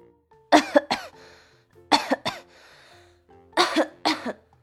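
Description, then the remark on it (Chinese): Guests coughing after putting food in their mouths, setting down their spoons and standing up: three pairs of sharp, harsh coughs, each double burst followed by a brief pause, fairly loud and spaced evenly over a few seconds, with no talking. “客人们刚把食物放进嘴里，就放下了勺子，咳嗽着站起来。”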